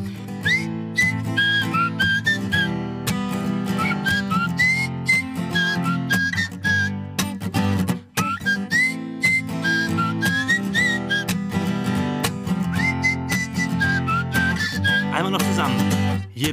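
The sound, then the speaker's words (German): A cheerful snow song melody is whistled loudly and clearly, hopping between bright sustained notes over a steady musical accompaniment with a bouncy rhythm, without any talking. “Draußen Zunge weit raus, strecken und Schneeflöckchens Röckchen schmecken, dann die Augen fest zu kneifen und laut unser Schneelied pfeifen.”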